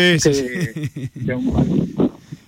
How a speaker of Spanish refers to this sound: que no pegue tanto el viento, se está notando, eh, efectivamente, el cierzo en la, la, llamada, se escucha mucho de, fondo